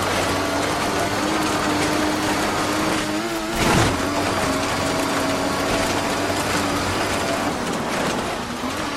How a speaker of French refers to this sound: La là, énorme différence. On entend les grains de sable euh, crisser sous les roues de la voiture. Donc là, on sait parce qu'on est très fort, qu'il s'agit hein, donc d'un jeu de rallye